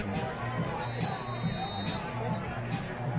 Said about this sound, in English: I meant to mention the crowd, very good crowd tonight from both both uh, schools, and two nice band performances as well.